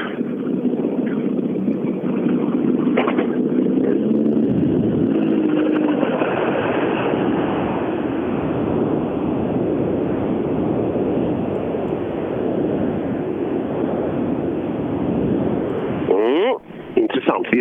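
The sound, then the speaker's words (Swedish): Racing car engines roar loudly and continuously at the start of a race, with droning tones that climb in pitch early on before blending into a dense, rumbling wash; a voice is faintly audible beneath the noise. “Det börjar låta väldigt trevligt nu.”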